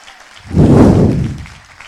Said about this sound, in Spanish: Alguien que esté ungido, que le dé un aplauso al Señor.